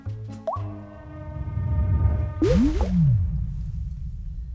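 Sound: water dripping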